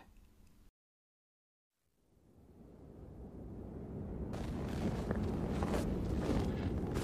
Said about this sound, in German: Wieder bläst mir der Wind Eiskristalle ins Gesicht.